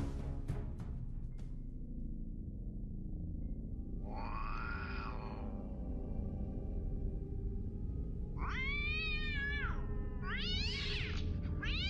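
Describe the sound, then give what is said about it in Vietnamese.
A cat yowls in drawn-out, wavering cries while chasing a mouse, one long wail followed after a pause by two more rising and falling yowls, over a steady low background rumble. “Tiếng mèo vườn chuột đâu đó vang lên”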